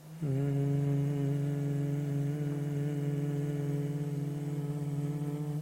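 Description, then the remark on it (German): A single voice hums one steady, low note on a long out-breath during a breathing exercise, even in loudness, starting after a brief pause and sustaining for over five seconds without talk. “Atme summend aus.”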